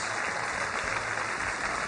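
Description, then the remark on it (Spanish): Steady audience applause welcoming actor Carlos Manuel Vesga onto the show Bla Bla, a dense wash of many hands clapping at an even level for the whole stretch, with no voices rising above it. “Recibamos con un fuerte aplauso al señor actor Carlos Manuel Vesga.”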